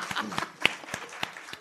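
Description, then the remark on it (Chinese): A short burst of audience applause for a performer at a crosstalk (xiangsheng) comedy show, heard as a handful of separate, crisp hand claps in an uneven rhythm rather than a dense roar, moderately loud with no voices over it. “掌声鼓励鼓励吧！”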